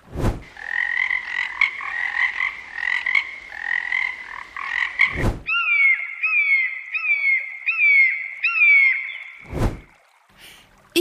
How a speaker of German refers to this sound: kann Frösche und Vögel hören.